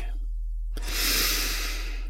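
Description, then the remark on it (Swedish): After a moment of quiet, a single deep breath is drawn in through the mouth, a steady airy hiss lasting over a second, with no talking, taken with eyes closed as part of a guided relaxation breathing exercise. “Och så tar du ett djupt andetag.”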